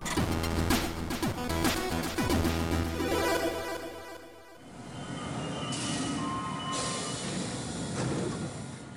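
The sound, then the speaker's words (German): A U-Bahn subway train ride from inside the car, travelling across half the network toward Buchenau: steady low rumble and rattling, screeching metallic tones early on, a brief lull midway, then the rolling noise picks up again. No voices. “Und dazu müssen wir mit der U-Bahn oder überhaupt einem öffentlichen Verkehrsmittel, ich habe mittlerweile große Zweifel, ob diese U-Bahn wirklich so weit reicht, ähm, nach Buchenau fahren.”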